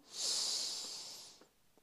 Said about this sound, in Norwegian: Da starter vi med å puste godt inn med nesa